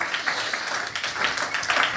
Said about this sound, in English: That is uh, awesome. Round of applause.